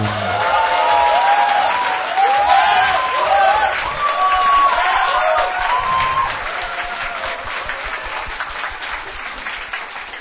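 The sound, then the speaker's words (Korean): Sustained audience applause at a live public radio broadcast, with dense, rapid clapping and some cheering voices throughout, loud at first and easing slightly toward the end of about ten seconds. “제가 박수 받는 걸 싫어하지만 그래도 한 번쯤은 필요할 때가 있는.”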